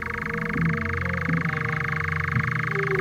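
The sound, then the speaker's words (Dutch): A nightjar churring at night: a continuous mechanical churring trill runs steadily throughout, a rapid dry purr at even loudness, with faint low background rumble and no voices. “De nachtzwaluw”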